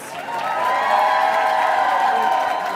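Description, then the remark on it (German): A crowd bursts into sustained applause mixed with cheering and whoops for contestants who have advanced to the semifinal, a dense, loud wash of clapping that holds steady for a few seconds before easing slightly at the end. “Das ist euer Applaus!”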